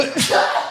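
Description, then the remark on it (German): A single sharp sneeze: a quick intake, then an explosive, hissing burst that trails off, with no talking. “Und nochmal Gesundheit.”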